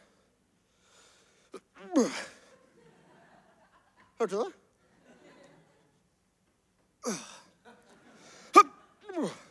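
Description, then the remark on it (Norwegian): Several short, strained vocal grunts and groans of effort, fairly loud, made while sitting down and standing up, come in separate bursts with quiet gaps between them; a voice briefly speaks near the end. “Det, det kommer lyder hver gang du setter deg og reiser deg opp.”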